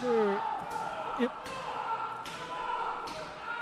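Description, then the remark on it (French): Four sharp, loud slaps land at a fairly steady pace during a professional wrestling match, each a crisp smack against skin, with a voice murmuring briefly in the background between them. “Je veux pas interrompre le bruit de claque, OK?”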